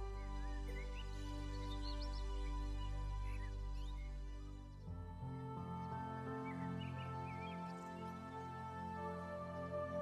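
Sustained orchestral music plays with soft, rich string-like tones while scattered bird chirps and tweets flutter above it throughout, fairly quiet and steady, with no one speaking.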